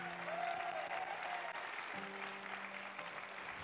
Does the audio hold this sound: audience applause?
yes